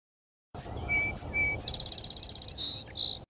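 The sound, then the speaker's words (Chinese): High, bright skylark chirps: a few thin whistled notes, then a fast rapid-fire trill of sharp tweets followed by two longer buzzy chirps, with no talking. “云雀尖声吵，叽叽啾啾，叽叽啾啾。”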